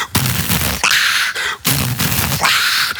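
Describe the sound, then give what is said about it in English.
A huge crowd of thousands of concertgoers pounds out a stomp-stomp-clap beat: heavy, booming foot stomps followed by a sharp, roaring burst of massed handclaps, repeating in steady rhythm. “That part's a little easy, but it took a few summers to actually perfect the sound of thousands of people going,”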